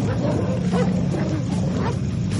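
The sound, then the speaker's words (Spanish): Dogs growl and snarl in a loud, continuous rumble, with rough throaty swells rising and falling and no clear pauses or talking. “No son nuestros perros.”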